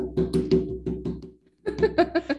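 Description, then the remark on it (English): One-handed clapping while the other hand holds a drink: a quick run of about five dull slapping taps, a short pause, then another burst of five, fairly loud and rhythmic with a hollow, knocking quality. “I was clapping because I'm using one hand to drink one.”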